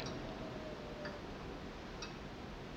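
Clocks ticking softly, sharp little ticks spaced about a second apart over a steady hiss of low background noise, with no one speaking.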